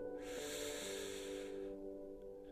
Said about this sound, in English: And I just want you to focus on your breath. Just breathing in